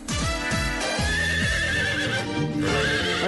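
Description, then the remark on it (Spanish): A horse whinnies loudly, a long shaky neigh with falling tremolo pitches, while hooves clip-clop rhythmically underneath for a few seconds. “Pero miren quién llegó. Ay, para que vean. My Little Pony, que viene hoy”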